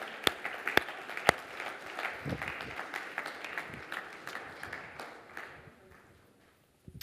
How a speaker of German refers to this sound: Komm, lass uns Jesus noch mal einen dicken Applaus geben. Ein Applaus von Herzen.